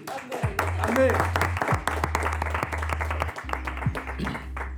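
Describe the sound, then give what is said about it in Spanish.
An audience applauds steadily for about five seconds, a dense wash of many hands clapping at an even loudness, with a low sustained hum running underneath. “Muchos aplausos, eh, muchas anécdotas.”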